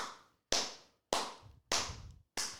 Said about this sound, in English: Hell yeah, there should be more people clapping. All right, I should have a I should have a, a bank of people, like a little team listening right now of producers. If I did, they'd all be clapping. Wouldn't that be more impactful?